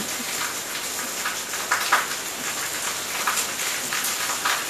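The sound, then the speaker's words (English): Heavy thunderstorm rain pours down steadily on a house in Portugal, a dense hiss with scattered sharper drops spattering on a hard surface, continuous throughout with no voices and no thunder. “the thunderstorm is hitting our house”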